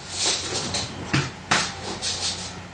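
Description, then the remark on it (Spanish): A dog makes shuffling, rustling noises, with two sharp knocks or thumps standing out over a steady hiss of background noise. No one speaks. “es el perro.”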